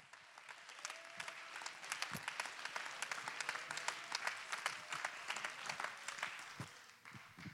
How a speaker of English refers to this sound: Come on, let's clap our hands and give Him real praise. This is for everybody.